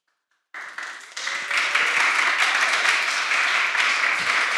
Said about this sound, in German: Der erste Applaus der erste Applaus, den es jemals gegeben hat bei einem Sunday Morning.